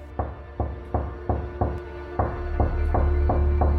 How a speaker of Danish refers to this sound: Han larmer inde i værelset ved siden af og banker på væggen i en rytme, som jeg har svært ved at genkende.